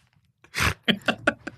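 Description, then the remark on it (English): A sleeping woman snoring lets out a sharp, noisy snort once, followed by a quick run of four short, choppy snuffling sounds, all moderately loud against an otherwise quiet background. “you snorted again.”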